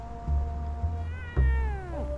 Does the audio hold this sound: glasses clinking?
no